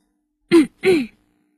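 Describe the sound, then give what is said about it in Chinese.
In a story being read aloud, a person clears their throat for the character A Fu. It comes as two short, gravelly bursts in quick succession with a brief pause between them, then silence. “阿福清了清嗓子，”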